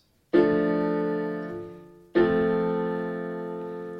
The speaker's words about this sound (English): Also, keep in mind that these chords sound totally different on a piano. If I play a D minor to F major chord on the piano, it sounds like this.